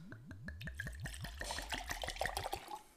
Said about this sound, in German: Ich würde würd sagen, wir gießen, ähm, wir fangen ja. gleich mal an und gießen das. Ja, probieren natürlich direkt.